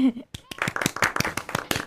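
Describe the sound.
Hand clapping, a quick run of sharp, fairly loud claps in an uneven rhythm, following a brief bit of voice at the start.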